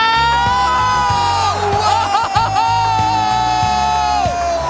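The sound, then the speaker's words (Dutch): The crowd at De Kuip stadium roars after Feyenoord scores to go 3-0 up against Go Ahead, a loud sustained wall of cheering with whoops and yells, plus rising and falling whistle-like tones cutting through the din. “De Kuip ontploft, want Feyenoord komt op 3-0.”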